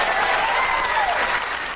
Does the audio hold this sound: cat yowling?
no